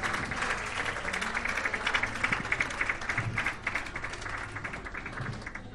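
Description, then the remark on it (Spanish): A crowd applauds steadily to welcome a guest from the city of Mercedes, during a live broadcast on FMVAL and YouTube, a dense rattle of many hands clapping at a fairly even loudness, holding for several seconds without pause. “Bueno, eh, em, quisiera, por favor, con un aplauso darle la bienvenida”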